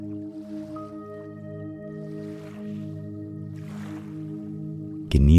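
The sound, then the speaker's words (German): Gentle lake water laps in slow, soft swells beneath a steady, sustained musical drone, with a sudden louder swell right at the end. “Das Wasser auf dem See bewegt sich ganz leicht und ruhig.”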